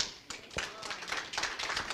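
An audience claps together to welcome a speaker to the pulpit, a dense, steady patter of many hands with sharper individual claps popping out of the wash, fairly loud and sustained throughout.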